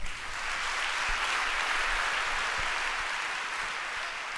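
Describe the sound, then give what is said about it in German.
An audience claps steadily to welcome a guest speaker and his translator, a dense wash of many hands that stays fairly loud and even throughout, with no voices rising above it. “Gebt ihm einen herzlichen Applaus.”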